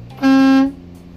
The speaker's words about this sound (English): Your hand might be resting on your horn. So check your city horn and your air horn.